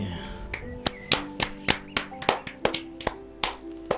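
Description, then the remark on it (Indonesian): Hand clapping in a steady, fairly quick rhythm, about ten sharp claps over a few seconds, with faint sustained tones humming underneath. “Kita rayakan dengan bertepuk tangan.”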